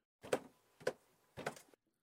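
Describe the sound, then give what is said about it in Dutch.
Drumming by a sound designer to mimic a robot monkey, from a video about the game Horizon Forbidden West: three loud, resonant thumps at uneven intervals, the last one longer and more rattling, with no talking. “trommelen om te laten horen hoe een robotaap klinkt”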